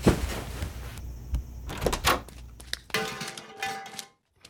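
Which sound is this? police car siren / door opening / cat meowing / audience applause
door opening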